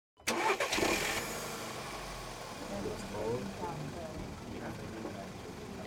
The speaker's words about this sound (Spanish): Suena el motor del carro y de pronto baja la velocidad. Un tope nos hace saltar junto con los muebles y las mochilas.